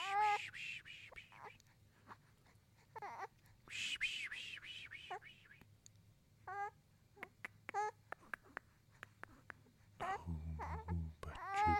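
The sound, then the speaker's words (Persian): An infant fusses and babbles in short, whiny bursts before sleep, with brief pauses and a low steady hum underneath; near the end a soft murmuring voice joins in, telling the baby to sleep. “بخوابه بچه بخوابه باریکلا بابا”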